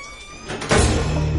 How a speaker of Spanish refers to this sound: Mac abre la puerta.